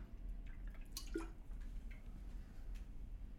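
Water pours into a glass in a short, quiet trickle with soft splashes and a brief rising gurgle, over a low background hum with no one speaking.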